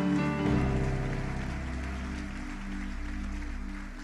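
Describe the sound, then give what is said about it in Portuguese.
A standing audience applauds the Lord at a ten p.m. church service, steadily for about four seconds, a dense crackling patter of many hands over sustained keyboard chords, holding a fairly even loudness throughout with no speech. “Pode ficar de pé, aplauda o Senhor.”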